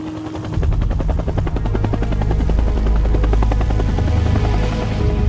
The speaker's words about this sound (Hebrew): והמריאו אל שדה הקרב בבקע. כשהמסוקים חצו את הגבול, נגלה למולו לראשונה בחייו מראה המלחמה.